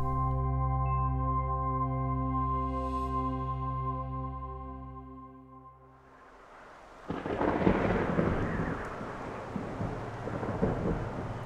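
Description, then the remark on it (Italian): A deep, sustained low rumble fades away, then a loud burst of thunder breaks into heavy, roaring rain that continues steadily, with no voices; a rapid, violent afternoon thunderstorm. “Il temporale del pomeriggio seguente, rapido e violento, fa finalmente precipitare la temperatura.”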